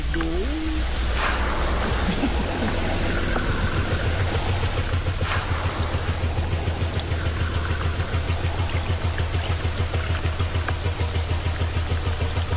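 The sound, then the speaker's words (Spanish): A deep, steady low-frequency rumble, the vibrating call of a blue whale, droning continuously beneath a constant wash of hissy, ocean-like background noise with no voices. “Pues si quieren, escuchemos un poquito de este canto de la ballena azul.”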